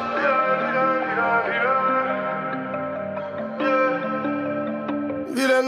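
Instrumental intro to a rap track: sustained, echo-drenched tonal chords play steadily with no vocals, shifting pitch partway through and ending in a brief bright swoosh.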